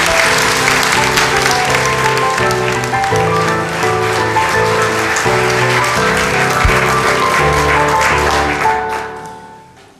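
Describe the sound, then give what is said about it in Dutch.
A large audience applauds steadily, a dense wash of clapping that stays loud for about nine seconds before tapering off at the end, with music playing faintly underneath. “Nou, het applaus van u eh, zegt genoeg.”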